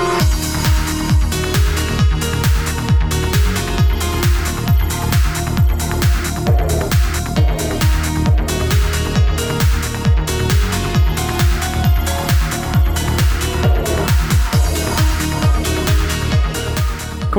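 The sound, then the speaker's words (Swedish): A driving electronic music track from 2016 with a steady, punchy kick pattern, dense synth layers and bright hi-hats, playing loud and continuous throughout with no voices. “… med … från år 2016. Den låter så här.”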